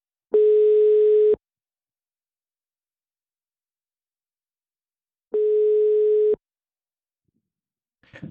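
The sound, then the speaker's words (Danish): A telephone ringback tone sounds while a call is placed during a live radio broadcast: two steady electronic tones, each about a second long, separated by several seconds of silence, followed by a faint rustle at the end. “så lad os prøve at, ja. at ringe op.”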